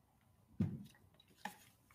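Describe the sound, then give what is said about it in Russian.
Someone takes a quick drink of water: a soft gulp, then a brief light clink of a glass a moment later, quiet with no talking. “вот воды”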